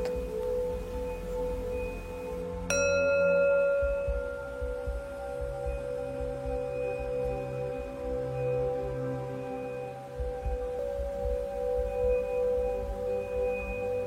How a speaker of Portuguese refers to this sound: Toda vez que você ouvir este sino, retorne a sua atenção, a sua respiração. O sino é para lembrar você para retornar ao presente momento,